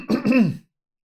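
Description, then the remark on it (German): A person clears their throat once, fairly loud, a short rough rumble of about half a second followed by silence. “Räuspern plus Kaffee gleich schon viel besser.”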